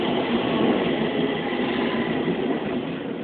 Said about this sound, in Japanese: 電車も走ったりなんかしてるんですけども。